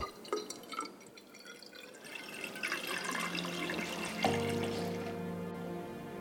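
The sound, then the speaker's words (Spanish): Water pours steadily into a cylinder in which dyes have been mixed, for dyeing yarn to restore a tapestry, the splashing growing fuller and gaining a rising ringing tone as the vessel fills. No one speaks. “A continuación, mezclan los tintes y añaden agua a un cilindro.”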